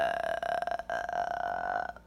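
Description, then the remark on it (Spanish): A voice imitates a cursed house's long, croaking burp from a horror film, a single drawn-out guttural rasp lasting about two seconds with strong steady tones, fairly loud, with no other sounds around it. “La casa está eructando toda la distancia”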